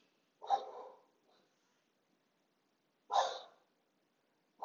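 A dog barks a few times with long pauses between, each bark short and sharp against an otherwise quiet background, with no voices.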